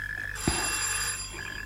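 A doorbell rings once in a bright, sustained electric tone that starts with a small click, rising over a steady background hum, then fades after about a second. No one speaks.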